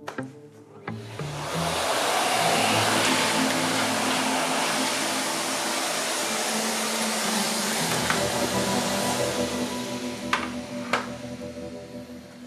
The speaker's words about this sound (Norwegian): støvsuger lokalet en ekstra gang.